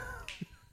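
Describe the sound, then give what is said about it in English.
A single crisp finger snap, made by a finger striking the palm, fairly loud, standing out briefly against a faint background hum with no talking. “it's such a weird mechanism when you click because you're pushing these fingers together”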